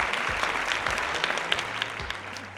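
A steady burst of clapping, many quick overlapping claps like a small crowd applauding, holding at an even loudness for a few seconds with no talking over it.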